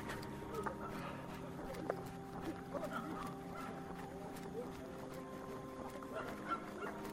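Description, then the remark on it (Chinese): A dog barks a few times in short, sharp bursts, not very loud, over a steady droning hum of cicadas and faint outdoor background noise, heard from a relatively open suburban road during a running race, about three kilometres in. “当然还有狗叫。”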